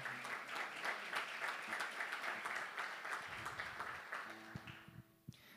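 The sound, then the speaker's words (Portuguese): After a prayer, a church audience bursts into sustained applause for the Lord, a dense steady wash of many hands clapping that thins toward the end, with a few scattered claps and a faint tone lingering as it fades. “Se você crê, dê uma salva de palmas ao Senhor.”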